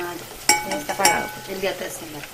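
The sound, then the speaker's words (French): Plantain slices fry in a pan for a second time until they become small crispy patties, with a steady hissing sizzle, broken by a few sharper crackles and scraping stirs. No one speaks. “Ensuite, la banane plantain est frite à nouveau jusqu'à devenir une petite galette croustillante à souhait.”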